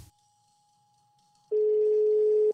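A telephone ringing tone heard while placing a call: after a near-silent stretch, a single steady, mid-pitched electronic tone sounds loudly for about a second, then cuts off. No one speaks.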